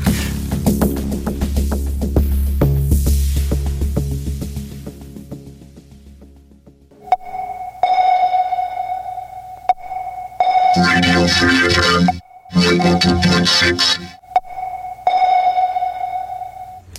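An electronic music track plays with no voices, opening on a dense, droning wash before shifting to a sustained sonar-like ping tone punctuated by loud, distorted rhythmic bursts.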